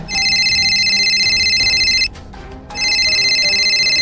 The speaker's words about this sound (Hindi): उसने चेतन को फोन मिलाया